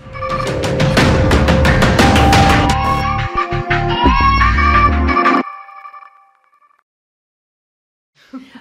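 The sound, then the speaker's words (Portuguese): A short, punchy intro jingle plays loudly for about five seconds, with rhythmic beats and bright melodic tones, then rings out and fades into silence before a faint brief noise. “E antes de mostrar o rosto dela, roda, roda a vinheta.”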